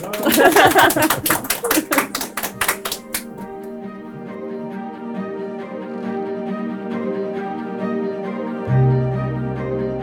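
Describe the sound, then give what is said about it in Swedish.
A brief burst of audience applause, dense overlapping claps for about three seconds, then it stops and a sustained, tonal piece of music carries on alone. “Nu, kan, nu går det bra att applådera.”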